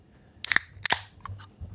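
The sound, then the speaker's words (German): A plastic PET water bottle being twisted open: two sharp, crackling snaps in quick succession, followed by a few faint ticks, with no voices. “ich tu nur schnell, wenn das hörst. Das Wasser? Ist das, das Wasser? Ja, in das, das PET-Fläschchen auf.”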